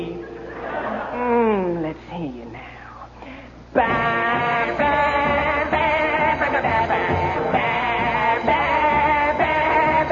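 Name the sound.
sheep bleating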